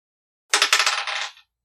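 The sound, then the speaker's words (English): Dice clatter across a hard tabletop in a quick burst of sharp rattling clicks, bouncing for about a second before settling and going quiet, rolled for an investigation check and coming up sixteen. No one speaks. “I can roll an investigation. yeah, go ahead and roll.”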